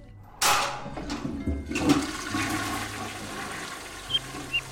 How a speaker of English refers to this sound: The sound of the flush unleashed a torrent of screams from the woman in the room as the water was sucked down the drain.